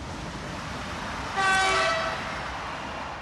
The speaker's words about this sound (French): Je suis fasciné par ce décor que je vois défiler par la fenêtre, si proche des wagons qui s'élancent à flanc de falaise.